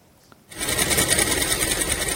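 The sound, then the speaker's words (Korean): A sewing machine starts up after a brief quiet moment and runs steadily, its rapid, regular mechanical stitching rhythm fairly loud with no voices, as clothes are made in a handmade women's clothing workshop. “네, 오늘은요 여성복 핸드메이드 공방에서 옷 만드는 소리를 녹음해서 오.”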